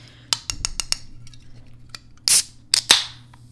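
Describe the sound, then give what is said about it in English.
A can of non-alcoholic stout beer being opened for ASMR: a run of small metallic clicks from the tab, then a sharp pop and a short burst of fizzing hiss, with a second hiss right after. “Can you open it? Do the, do the, the ASMR.”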